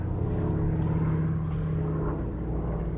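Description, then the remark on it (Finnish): A steady, heavy drone of a DC-3 aircraft's nine-cylinder radial engines running, a deep throbbing hum with a low rhythmic beat, loud, continuing evenly without any voices. “Kumpi tää on, DC2 vai 3? Kolmonen tää No niin.”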